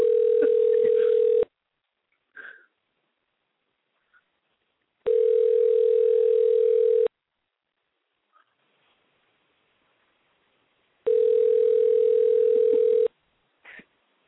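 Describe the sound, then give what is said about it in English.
An outgoing phone call to Charles Ramsey sounds its ringback tone three times, each steady buzzing ring lasting about two seconds with long silent gaps between, heard through a phone line, with faint brief noises in the pauses. “No, only if uh, Charles Ramsey will pick up the phone.”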